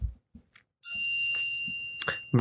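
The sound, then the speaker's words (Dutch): A single clock chime strikes loudly and rings out bright and metallic, its high tone slowly fading over about a second and a half, with a few soft low thumps around it. “De klok eh, slaat toe.”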